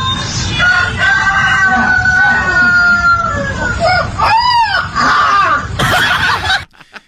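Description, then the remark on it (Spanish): A small white puppy, trying to imitate a rooster, lets out a long, wavering howl that climbs and falls like a rooster's crow, with a few yelps mixed in. It is fairly loud over steady background noise. “Le, quiere, quiere hacer como el gallo, güey. Pero, ah, con ladrido de perro.”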